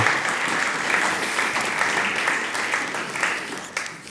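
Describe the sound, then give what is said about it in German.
Sustained audience applause for the preaching team and the film team: a dense, steady wash of many hands clapping at a fairly even loudness for about four seconds, with no talking over it. “Applaus fürs Predigteam und fürs Filmteam.”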